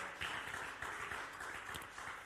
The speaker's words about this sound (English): Who is not clapping to the glory of God? Clapping has always been free. Go ahead. Go ahead. Go ahead.